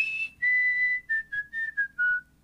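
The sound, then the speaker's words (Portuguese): A man assembling a barbecue whistles a song he has just heard, a series of clear sustained notes stepping gradually downward in pitch, with brief gaps between phrases and a faint low background hum. “Se o cara acabou de ouvir tá assoviando a música.”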